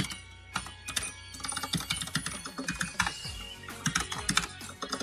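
Rapid, clicky keystrokes from a mechanical gaming keyboard, fairly loud, tapping in uneven bursts with no one speaking.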